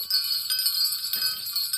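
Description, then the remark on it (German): Sleigh bells jingle in a bright, continuous shimmer with no voices, the rapid tinkling holding steady and dipping only slightly at the very end. “Das waren Glocken. Und sie wurden leiser. Das musste der Schlitten des Weihnachtsmanns sein.”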